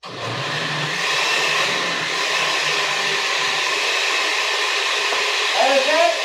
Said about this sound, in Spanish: Lo metemos a la licuadora, señores y señores. Va a ser un poco de ruido, banda. Con un poquito de agua de, este, ¿cómo se llama? De la misma De, lo mismo que tenemos aquí. Y perdón por el ruido, pero ahí les va.